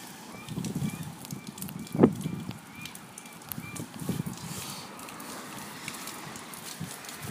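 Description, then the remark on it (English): Seagulls that have just flown up call faintly in the morning beside the Pacific Ocean, their repeated cries drifting over a low, rumbling outdoor background, with one brief louder knock partway through. “I can hear the morning seagulls who have uh, just flown up.”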